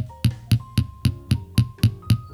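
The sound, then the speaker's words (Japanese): A small hammer taps steadily on a metal vessel filled with hardened pine resin, not hollow, adding a scale-like hammered pattern one strike at a time; about eight crisp strikes in an even quick rhythm, each with a dull, solid, almost stone-like knock and no voices. “割となんか石とかを叩いてるみたい”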